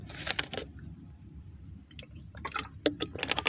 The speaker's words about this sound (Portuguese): Deixa eu tomar água.